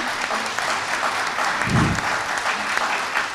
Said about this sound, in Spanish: para quien pido un aplauso que está con nosotros.